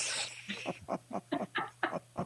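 A French bulldog snorts and snuffles in a quick series of about eight raspy, rhythmic bursts, not loud, over a low steady hum.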